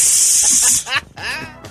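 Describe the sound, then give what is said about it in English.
A person imitates a snake with a sustained, breathy, loud hiss, followed by a couple of short voiced sounds as the hiss trails off. “The snake just goes, oh yes.”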